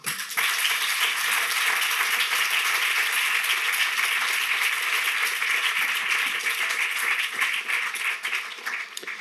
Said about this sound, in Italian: fate un applauso a loro.